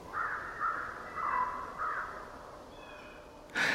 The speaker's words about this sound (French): Un autre paysage de son, le parc d'Algonquin dans l'Ontario, au sud-est du Canada, c'est en 2007, à la fin du mois de mars, à l'aube. Un concert printanier de chants d'oiseaux une corneille d'Amérique.